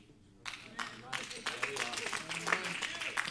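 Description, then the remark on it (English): An audience breaks into applause after a brief quiet moment, many hands clapping in a dense, steady patter that builds slightly and continues to the end. “No, we can applaud to that now, but if it's one of us that are out there walking, we probably get upset about it, won't we?”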